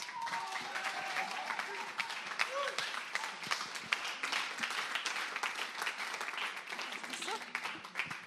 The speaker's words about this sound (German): Applaus für dich.